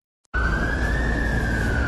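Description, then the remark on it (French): An ambulance siren wails loudly, one sustained tone slowly climbing in pitch over a heavy traffic-like rumble, starting abruptly after a brief silence. Ambulances are responding to a huge fire in a hangar at the port of Beirut, Lebanon, a few metres from the main highway. “des ambulances, de la fumée qui envahit le ciel de Beyrouth comme un air de déjà-vu.”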